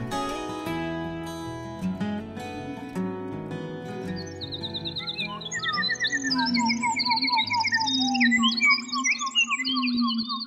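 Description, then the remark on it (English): A lone wood thrush recorded in Canadian woods near Quebec, its fluting, warbling phrases studio-altered and repeating over a steady low drone, entering after several seconds of layered musical tones. The song is clear, with no talking. “recorded a lone wood thrush in the Canadian woods near Quebec”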